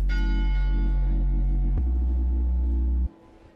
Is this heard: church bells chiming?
yes